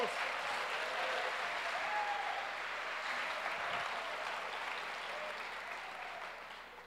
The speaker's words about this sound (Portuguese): Uma salva de palmas ao Senhor Jesus.